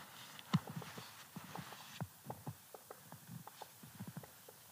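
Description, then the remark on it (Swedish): A male woodpecker with a red spot on its nape pecks at a cone to work out its seeds, making a quick, irregular run of dry wooden taps and knocks that continues steadily, with no talking over it. “Jag hörde en hackspett.”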